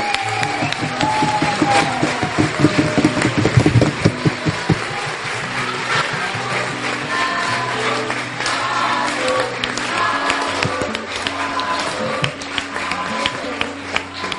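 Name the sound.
audience applauding loudly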